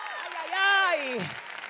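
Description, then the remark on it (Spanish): An audience applauds steadily in the background while a man's voice rings out over it in a long, rising and falling exclamation. “Si, si alguien le va a dar un aplauso.”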